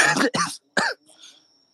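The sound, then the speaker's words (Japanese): A sudden burst of coughing from a person, a lingering cough after COVID-19 set off by speaking: two quick, harsh coughs followed by a third, loud, then a faint raspy breath trailing off into quiet. “うちの親も、えー、1ヶ月前でコロナになりまして、えー、今も、えー、咳、がね、咳、喉の痛みは1週間で消えるらしいんですが、咳、突発的な咳、うん、が、やっぱだいぶ残る。”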